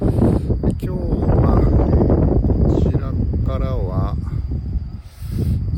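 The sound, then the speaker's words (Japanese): Strong wind buffets the microphone with a constant low rumble and bursts of thumping noise, while a man speaks over it, outdoors in light drizzle under cloudy skies as he waits to watch the International Space Station pass over Tokyo. “ちょっとね風が強いんで、えー、風の音入ってるかと思いますが、えー、よろしければお伝えください”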